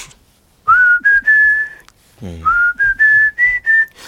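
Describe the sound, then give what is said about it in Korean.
The lead singer of a rock song whistles its melodic intro in two clear phrases, each opening with an upward slide into a string of steady, fairly high sustained notes. The whistling is loud, with a brief murmured voice between phrases. “이걸 정말 기분 좋게 어, 받아들이 는걸 갖다가 앞에다가 거기다 휘파람 소리를 갖다가 이렇게 깔아놨는데 요 부분을 뭐 지금 어우”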